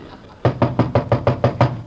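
A quick, even series of seven knocks on a door, fairly loud, with a hollow thud to each rap and no voices.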